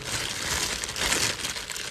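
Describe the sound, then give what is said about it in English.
A plastic bag holding shea butter crinkles and rustles continuously for a couple of seconds as it is twisted and tied, a dense, crackly texture with no voices over it. “Tie that back up.”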